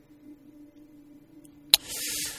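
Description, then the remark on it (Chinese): A lighter is struck in a pitch-dark toilet: one sharp click followed by a steady, breathy hiss of gas, preceded by a low, quiet background hum with no one talking. “不过呢，我就听着打火机打火的声音了。”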